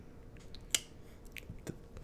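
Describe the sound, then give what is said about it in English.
A single sharp click of a button being pressed stands out against a low, steady background hum, with a few softer ticks and rustles scattered around it and no talking. “that was me pressing the button.”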